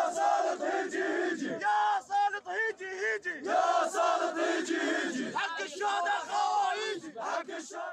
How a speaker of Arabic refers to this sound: الهتافات خلال هالاحتجاجات كانت ذات مضمون واحد وهو المطالبة بتغيير النهج